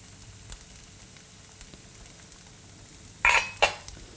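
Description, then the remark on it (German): A soft, steady bubbling hiss of water boiling in a pot to cook rice, then two sharp metallic clinks near the end, like a lid or utensil striking the pot. No one speaks. “Ich höre, dass das Wasser kocht. Ja, unser Reiswasser kocht.”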